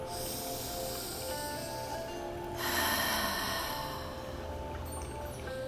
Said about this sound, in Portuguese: E eu te convido agora a que você faça uma respiração bem profunda.